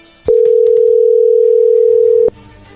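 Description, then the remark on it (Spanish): A telephone call tone sounds while a phone call is being dialed, a single loud, steady mid-pitched beep lasting about two seconds, starting and stopping abruptly, with faint murmur before and after it. “Bueno, creo que es normal, le va a llamar el lobo, no haga ruido, ahí se está marcando.”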